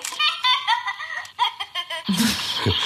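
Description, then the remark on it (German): A toy chick tucked in an egg lets out a bright, choppy electronic giggle in quick repeated bursts, followed by a loud rustling, rattling noise as it gets shaken. “dann fängt es an zu lachen.”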